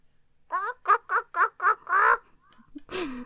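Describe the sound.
A woman imitates a duck, letting out a quick run of five or six nasal quacks in a steady rhythm, followed by a short voiced sound. Fairly loud.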